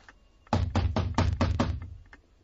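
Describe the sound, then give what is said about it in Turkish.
A rapid series of about six loud, heavy knocks on a door, evenly spaced, then quiet with no voices. “Kapı çalmıyor reis.”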